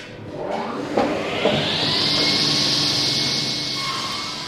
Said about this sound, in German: Mit einer Kreissäge, die so laut ist, dass der Tischlermeister aus Trusetal in Thüringen beim Arbeiten Ohrenschützer tragen muss, sägt er die verschiedenen Teile zu.